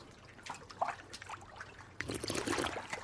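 Whiskey trickles from a bottle, a thin intermittent gurgle and splash that swells into a steadier, louder pour partway through, with no voices.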